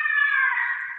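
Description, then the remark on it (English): A fisher cat screaming behind a house: one loud, sustained, shrill wail that holds steady for about a second, harsh, with no talking over it. “the screaming this is the sound of the fisher cats oh my gosh behind my house”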